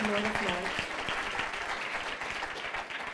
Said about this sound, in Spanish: Dele ese fuerte aplauso al Rey de Reyes y Señor de Señores.